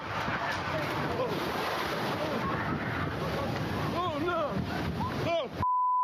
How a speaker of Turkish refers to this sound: Kıyıya birbiri ardına vuran dalgalar bir anda sahildeki deniz duvarını aştı.